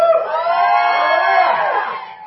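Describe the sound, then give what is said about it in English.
A church audience erupts in loud, sustained shouting and whooping during a sermon, a dense wall of cheering that holds steady for a couple of seconds before tapering slightly at the end. “You have to shout louder.”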